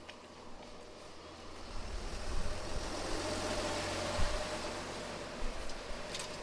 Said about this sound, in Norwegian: Eller en, bil, kommer, en lastebil kommer forbi. oss.